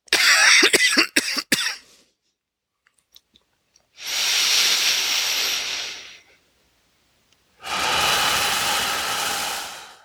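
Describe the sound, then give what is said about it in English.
A quick cluster of sharp coughs from one person in the morning, followed after a pause by two longer, harsh, breathy bursts of coughing or rasping exhalation. No one speaks. “a lot of coughing for me this morning.”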